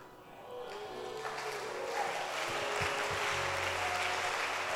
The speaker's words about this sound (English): Clap your hands for the Lord and let's welcome the bishop.